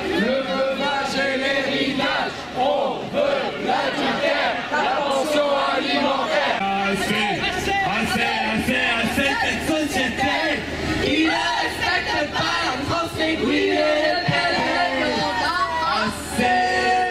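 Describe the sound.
A large protest crowd chants together in unison, loud and dense, with many overlapping voices shouting a rhythmic slogan from the campaign for same-sex marriage continuously for the full length.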